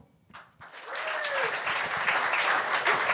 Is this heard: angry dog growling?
no